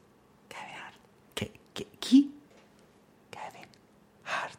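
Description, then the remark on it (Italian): Breathy whispering into someone's ear in short bursts with pauses between, plus a few soft clicks and a brief low voiced murmur; intimate and quiet. “Dimmelo in un orecchio. Eh, dopo te lo dico. Dai, eh, dimmelo in un orecchio. No, no, a bassa voce, così non lo sentono.”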